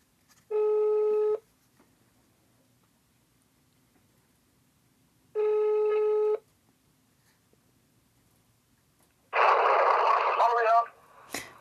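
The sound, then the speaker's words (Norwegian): A telephone ringback tone of an outgoing call sounds twice, each buzzy ring lasting about a second with a long quiet gap between, before a voice briefly picks up and speaks. “Jeg må ringe han og si hvor fint jeg syns det var.”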